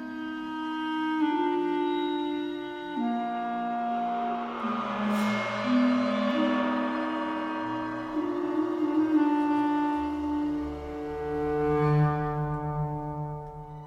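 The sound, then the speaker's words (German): A glockenspiel plays a bright melody over sustained orchestral-style music in film sound design, steady and fairly loud throughout, with no voices. “Bei diesem Glockenspiel musste ich so ein bisschen an Kevin allein zu Hause denken.”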